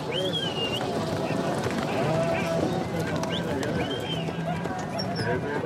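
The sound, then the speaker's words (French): Busy outdoor rodeo arena ambience as two riders control a cow along the arena: a steady crowd murmur with scattered animal bleats and lowing, faint hoof clops, and occasional high whistles over a dense, continuous background. “Le rodéo consiste pour les deux cavaliers à contrôler une vache le long de l'arène durant trois arcs de cercle.”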